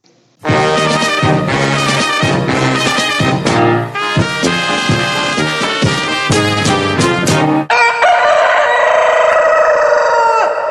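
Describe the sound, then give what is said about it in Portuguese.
A rooster crows loudly, its harsh, strained calls coming one after another with no pause, before a shift to a buzzier, sustained tone near the end. No one speaks. “Toca o Indo galo em homenagem ao bigode hoje.”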